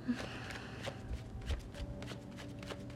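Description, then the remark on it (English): A deck of tarot cards being shuffled, a rapid run of soft papery riffles and flicks that repeats steadily, with low handling thumps underneath and no voices. “I'm not going to pull it though, I'm going to keep shuffling.”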